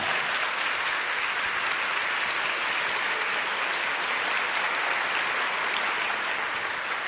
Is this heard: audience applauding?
yes